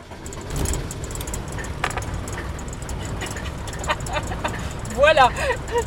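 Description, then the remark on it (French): An old van with its original 1992 engine is started and rumbles steadily at idle, a low, continuous drone with occasional clicks and rattles, and a brief voice-like sound rising near the end. “moteur de 92 d'origine.”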